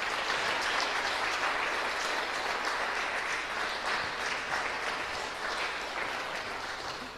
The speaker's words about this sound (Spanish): Entonces, como nadie nos va a aplaudir, aplaudámonos nosotros nomás.